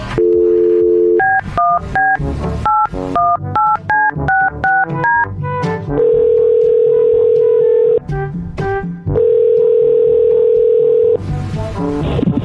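A phone call being placed: a steady dial tone, then about a dozen quick keypad tones beeping at different pitches, followed by two long, loud ringback tones separated by a short pause.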